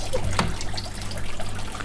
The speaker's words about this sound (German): Und da hört man das, das Wasser plätschern.